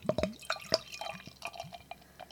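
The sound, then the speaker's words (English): Beer pouring into a glass, a quick run of wet drips and splashes with bright glassy clinks, fairly quiet, no voices. “To get it on mic, you have to pour a little more aggressively, but I don't think I got much of an aggression there.”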